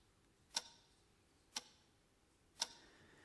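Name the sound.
clock ticking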